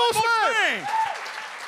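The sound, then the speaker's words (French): Audience applause with excited whoops and cheers rising and falling over a steady patter of clapping, loud at first and fading slightly toward the end. “mais t'es arrivé avec de quoi d'intéressant, puis je pense que ça, ça vaut la peine de continuer à développer, fait que je te, je te, je te demande à tout le monde d'applaudir.”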